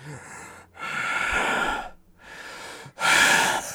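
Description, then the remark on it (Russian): A voice imitates the loud, heavy breathing of a big man, a programmer: three long, noisy breaths, alternating inhale and exhale with short pauses between, breathy, the last one loudest. “Но нет, был небольшой, он очень громко дышит, мне просто страшно.”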